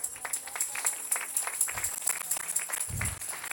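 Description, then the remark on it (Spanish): An audience applauds steadily to the glory of the Lord, with dense overlapping claps at moderate volume from a crowd of many people, continuous throughout with a couple of low thumps. “Denle un aplauso a la gloria del Señor.”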